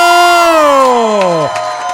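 A crowd cheers with a loud, sustained whoop that slides steadily downward in pitch over about two seconds, with light scattered clapping coming through toward the end, as two guests are introduced.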